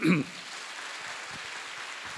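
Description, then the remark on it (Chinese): An audience applauds in honour of Taiwan's Enyou Church for its care of homeless people, a dense, even patter of many hands clapping that holds steady for about two seconds after a short, louder low thump at the very start. “台湾有一个叫恩友教会，他们也做得非常非常的好啊，我们给他们一个掌声好吗？”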